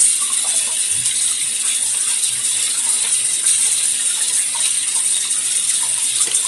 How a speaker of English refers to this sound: I'm going to run some water real quick.